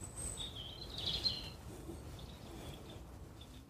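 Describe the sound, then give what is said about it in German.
Faint birds chirp in the background with thin, high-pitched calls, a brief cluster near the start and sparse tweets later, over a low outdoor rumble with no one talking. “Ich lasse das mal kurz wirken mit dem Vögelgezwitscher im Hintergrund.”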